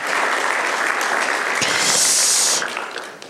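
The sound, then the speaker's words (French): A crowd applauds steadily, a dense, even wash of many hands clapping that swells slightly near the end before quickly tapering off. No one speaks over it. “Donc je les remercie, on peut les applaudir parce qu'ils viennent là sur leur temps libre.”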